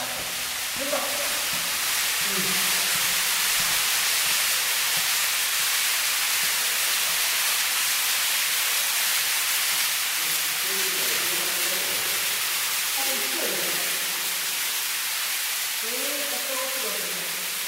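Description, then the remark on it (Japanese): At the top of a waterfall, reached by climbing about 50 m of stairs, the falls give a steady, loud hiss of rushing water that fills the whole stretch without letting up, while faint voices talk briefly underneath it now and then. “つまり要するにこの今 50m 上がってるわけだ階段でで滝の上部までやってまいりました”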